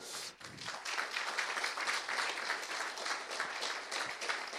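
An audience at a church applauds steadily one morning to welcome newcomers, many hands clapping in a dense, continuous wash of sound that stays fairly even from start to finish, with no voices standing out.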